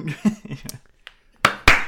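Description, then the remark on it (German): After a stretch of soft laughing and murmured voices, two loud, sharp hand claps ring out about a quarter second apart, with faint voices continuing beneath them. “Äh, lass mal bei 30 klatschen.”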